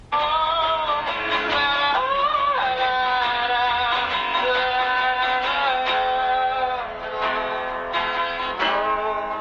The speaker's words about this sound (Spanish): Sentados escuchan una maqueta.